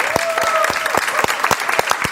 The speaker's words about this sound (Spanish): Un aplauso para …, mi gente.